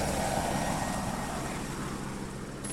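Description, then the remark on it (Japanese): A helicopter's engine and rotor wash roar steadily and loudly, a dense, rushing drone with low rumble that eases off slightly as it takes off from a field, whipping up a fierce wind. No voices are heard. “ヘリコプターはまた恐ろしい風を起こして飛び上がっていきます。”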